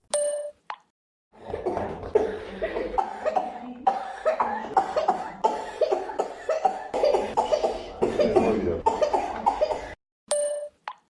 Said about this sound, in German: Kinder. Quengelnde kleine Kinder, die nicht still sitzen können, links und rechts sich hin und her wälzen und dabei lauthals husten. Ich weiß nicht, was ich schlimmer finde, schreiende Kinder oder hustende Kinder. Hier eine Compilation.